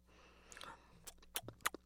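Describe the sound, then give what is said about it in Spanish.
Quiet chewing of a mouthful of stew: soft wet smacks and clicks, sparse at first and then coming in a quick irregular cluster, with no talking. “Me merezco otro cachito de mi guiso y otro sorbito de agua.”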